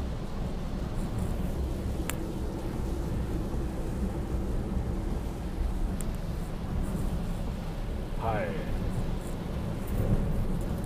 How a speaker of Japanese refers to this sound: 今はえっ、ー、と木津川沿いをずっと走っております相変わらず雨ですね今日はもうちょっと明日も朝雨やし